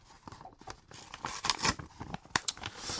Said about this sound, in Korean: 이거 너무 종이 소리, 소리 내려고 이렇게 좋은 쇠봉투 너무 낭비하는 거 아니에요? 아, 제작비 모자라다고 난리인데 재활용 못하게 하면 맨날 찢는다.